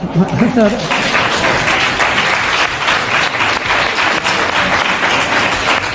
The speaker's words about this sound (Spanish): te están aplaudiendo, Yolanda, te están aplaudiendo.